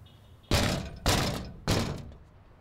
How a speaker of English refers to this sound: Instead of ringing a doorbell, Craig Baldwin told me to stomp on the metal plate in the sidewalk in front of his space on Valencia Street.